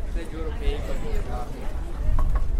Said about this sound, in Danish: Solen skinner Lyden fra guider på kanalrundfarten blander sig med det klirrende bestik.